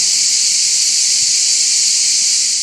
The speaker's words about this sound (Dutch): Het was een graad of 32, 33, zoiets. Ehm, niet echt bloedheet dus. Ehm, eh, en het viel nogal mee met dat eh, gesjerp ook, eh, want hoe warmer het is, hoe luider de cicaden tekeer gaan.